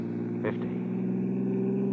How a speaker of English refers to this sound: Sunday night. The traffic is coming the other way now, back into Los Angeles.